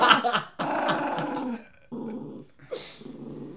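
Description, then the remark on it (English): A male dog growls at another dog in low, rumbling bursts, with brief pauses between them and a short higher whine near the end. “He, George kind of does bully Parker a lot.”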